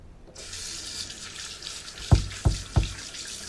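A tap turns on and water runs in a steady hiss, with three dull knocks landing in quick succession near the end.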